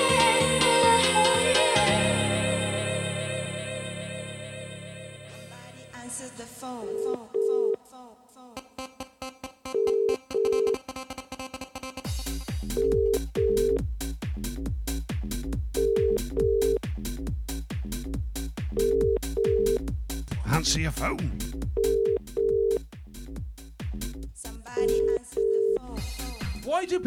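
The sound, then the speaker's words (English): An outgoing phone call back to a competition caller rings out with a repeating double-pulse ringback tone, about every three seconds, playing over a busy musical backing with no one answering. “we'll be ringing the call, the competition caller back next.”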